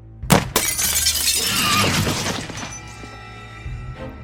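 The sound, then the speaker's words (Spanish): After a deafening volley, a glass lamp in the lower rows shatters into a thousand pieces with a sharp, loud crash, followed by a long spray of tinkling shards scattering and settling, then a few faint final pieces clinking near the end. “La la lámpara de las hileras de abajo se rompió en mil pedazos.”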